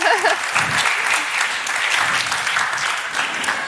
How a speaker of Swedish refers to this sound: Ja, nu ska vi se. Han klarar det. 27 wow. sekunder. Det är ändå värt en applåd.